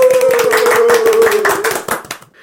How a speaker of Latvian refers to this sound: Aplausos!